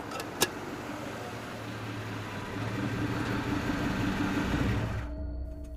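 car engine arriving

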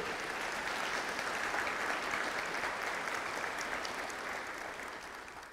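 audience applauding

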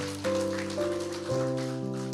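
audience applauding

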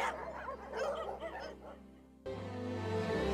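dogs barking and yipping

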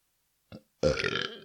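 burp

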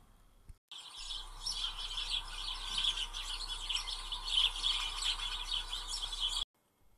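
birds chirping

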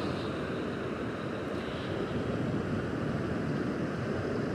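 ocean waves washing ashore

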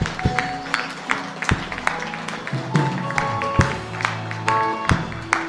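applause from church audience

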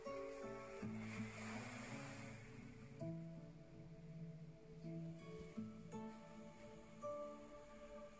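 ocean waves

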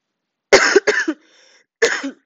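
coughing

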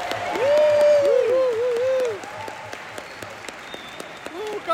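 audience applause

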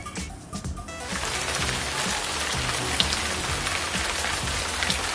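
rain falling sound effect

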